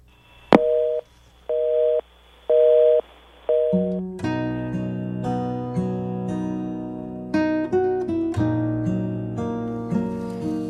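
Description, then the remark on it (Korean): A sharp click as a phone call is hung up, then a telephone busy signal beeps four times in an even on-off rhythm, clear, before giving way to a swelling instrumental music passage. “끊어진 전화처럼 우리의 인연도 끊어졌습니다.”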